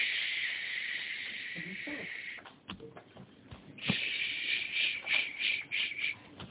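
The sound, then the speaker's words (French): A voice imitates the soothing shush a mother makes to calm her baby: a long, steady shush, then a short pause and a run of rhythmic, pulsing shushes, fairly loud with no talking. “Quand une maman, elle calme son bébé, qu'est-ce qu'elle fait Intuitivement, elle lui fait”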